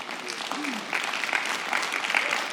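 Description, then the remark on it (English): A crowd applauds the speaker's wife in a steady wash of dense clapping that swells slightly partway through, with a few faint voices and whoops mixed in underneath. “You ought to give her a bigger hand clap for staying married to me.”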